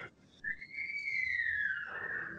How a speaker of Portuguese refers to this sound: Tem alguém gritando aí, gente. Acudir tem, tem aí alguém a criança. fazendo barulho. tem alguém fazendo barulho.